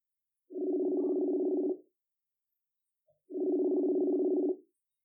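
Two long, steady ringback tones from an outgoing phone call to a woman, each buzzing for over a second with a pause between them, clear and alone with no voices.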